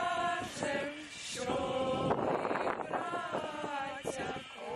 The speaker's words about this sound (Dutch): Of is het de stijgende wind?